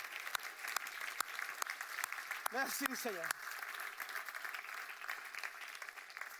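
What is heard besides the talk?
audience applauding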